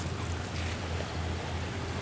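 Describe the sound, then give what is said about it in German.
A steady low rumble of idling engines as tourist boats that ferry visitors to offshore islands land in a harbour in Vietnam, with water washing and wind noise across the microphone. It is continuous and fairly loud throughout, with no voices. “Neben uns landen die Touristenboote, die zu den vorgelagerten Inseln übersetzen.”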